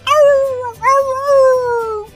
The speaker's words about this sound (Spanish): en España oyen un perro que está aullando.